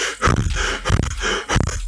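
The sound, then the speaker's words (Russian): A person breathes in quick, forceful huffs, imitating a dog's panting: a steady series of breathy bursts, fairly loud, with no talking. “мне рассказывали о экспериментах, которые были в Питере, проводили когда-то с солдатами, еще с нашими где-то, с добровольцами, где-то еще в конце 50-х, когда заставляли вот дышать именно собачье дыхание,”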